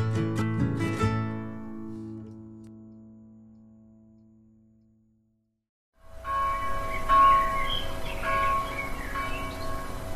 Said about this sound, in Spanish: cómo gozaba el viejito José haciendo resonar la campana de la iglesia. Desde pequeño, él había ayudado a su padre y los dos hacían vibrar la campana amiga, llenando con sus melodías todos los contornos.